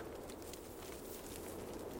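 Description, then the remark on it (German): Hooves of a horse being led on a lead rope clip-clop at an unhurried walking pace in a steady rhythm, fairly soft and set against a constant rustling background, with no one talking. “Er führte ein zweites Pferd an der Leine mit sich.”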